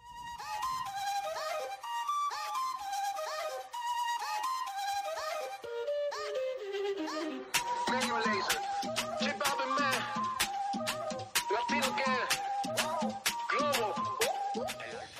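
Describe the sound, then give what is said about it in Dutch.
A bright pop-style song from a football video game soundtrack plays, opening with layered melodic lines before a punchy, steady beat kicks in halfway through and carries on at full volume. “een van de soundtracks van de voetbalgame bij uitstek, FIFA, in dit geval FIFA 20”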